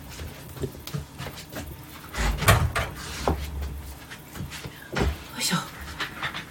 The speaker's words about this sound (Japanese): あちょっと待って今椅子を交換しますお待ちください